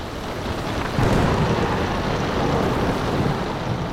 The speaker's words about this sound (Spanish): Pero el Señor desató sobre el mar un fuerte viento y hubo una tempestad tan grande en el mar que el barco estuvo a punto de romperse.